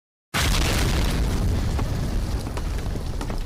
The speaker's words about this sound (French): Vous étiez dans la mine, et alors que les mercenaires au service de Philibert Bonvoisin euh, sont arrivés pour euh, une inspection, si j'ose dire. Une terrible explosion a retenti.